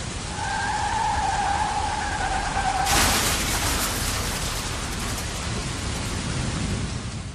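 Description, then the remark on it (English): Heavy rain roars steadily and loudly throughout as a car drives back along a road, with a high tire-like squeal over it for the first few seconds before a sudden harsh burst of noise. No one speaks. “So I merged on an ocean of thoughts in my head and asked myself why I insisted on going back with so much rain.”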